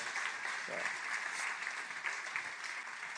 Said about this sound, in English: And isn't, I don't know if this is too much, they got another little baby on the way too. So can we clap for that too? So congratulations.